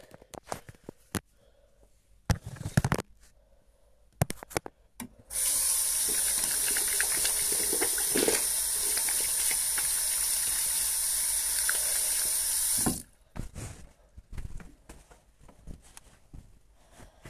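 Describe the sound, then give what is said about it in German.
Running tap water pours steadily for about seven seconds as hands are washed beneath it in a bathroom, a broad hissing splash, framed by scattered clicks and handling bumps before and after. “Und jetzt gehe ich schnell durch die Tür und in die andere Tür und hier ist auch schon das Bad und jetzt bin ich im Bad und jetzt werde ich mir einfach mal schön die Hände waschen.”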